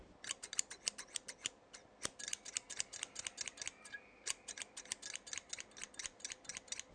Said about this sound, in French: C'était le son d'une paire de ciseaux en train de couper.